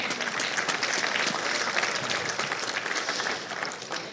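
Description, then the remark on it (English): An audience applauds steadily in praise of God, a dense wash of many hands clapping at once that holds strong throughout and begins to ease slightly at the end. “Come on, give God some praise with me.”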